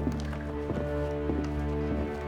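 Hooves clip-clop at an even walking pace, a dull knock roughly every half second, over a steady humming background inside a 28,000-square-foot horse barn.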